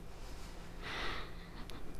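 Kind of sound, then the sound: human body sound, deep inhalation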